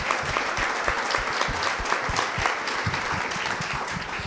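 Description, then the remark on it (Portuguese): A studio audience applauds a guest being welcomed on a Portuguese talk show, a steady, dense patter of many hands clapping at an even loudness for several seconds with no voices over it. “Nosso aplauso também.”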